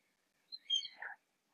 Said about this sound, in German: Hm, ich weiß nicht, ob es hört. Mein Falke da draußen, der schreit schon wieder ganz laut. Aber wahrscheinlich kriegst du es nicht mit.